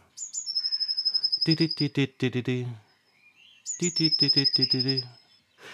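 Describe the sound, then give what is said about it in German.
A human voice imitates a Eurasian blue tit's song twice: a high, thin sustained whistle followed by a quick run of buzzy, stuttering trill notes. The phrases are fairly loud, separated by a brief pause. “Und der Gesang kommt gleich.”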